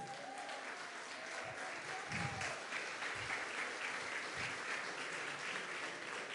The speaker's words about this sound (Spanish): Así que, ¿qué le parece si le damos un aplauso?